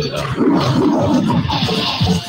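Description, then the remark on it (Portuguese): A lion roars loudly, a deep rumbling growl that carries on for about two seconds without pause, with no one talking over it. “Ô, Leão.”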